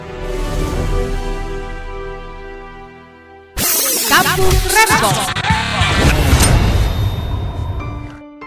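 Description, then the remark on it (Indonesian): A duck quacks repeatedly in harsh, nasal bursts, fairly loud, following a steady humming tone that cuts off abruptly partway through. “Ya, bebek.”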